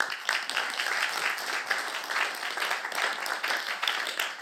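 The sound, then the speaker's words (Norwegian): A crowd applauds steadily, a dense, even wash of many hands clapping together at a moderate level, with no single claps standing out and no voices over it. “Gi han en skikkelig klapp, da.”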